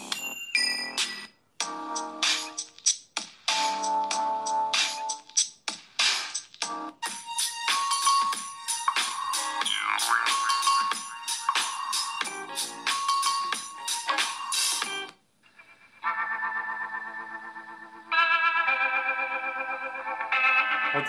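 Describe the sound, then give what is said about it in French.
Electronic music from YouTube Music plays through a smartphone loudspeaker, bright and tinny with almost no bass, running continuously with short dropouts and a change of section partway through. “Ça, si vous voulez entendre le son.”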